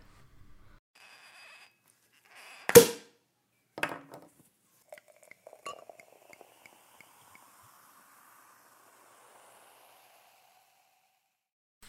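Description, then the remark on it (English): Two sharp clinks of glasses of fizz ring out, followed by a few lighter tinkling taps and a faint fading ring, with no voices. “so let's hear what she has to say whilst drinking a glass of fizz or two.”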